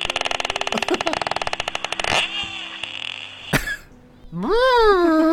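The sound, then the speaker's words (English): A voice imitates a porpoise with a loud, rapid buzzing click train of lip-rattling pulses, then a short pause, a sharp burst, and a rising, warbling squeal at the end, unaccompanied. “What does a porpoise sound like? I have no idea. Please. Yeah, do comparison.”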